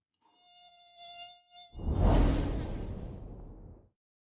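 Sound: mosquito buzzing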